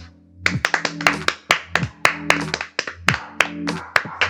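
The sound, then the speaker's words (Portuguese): A burst of sharp hand claps in an uneven, rapid rhythm, several people clapping at once with loud crisp transients over a low steady hum. “Palmas.”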